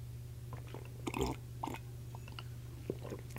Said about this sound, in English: And let me get a quick sip of coffee here.